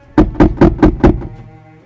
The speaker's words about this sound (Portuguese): E chegando lá, bati na porta.